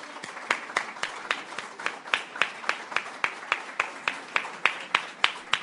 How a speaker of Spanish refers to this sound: Un aplauso para iniciar esta actividad.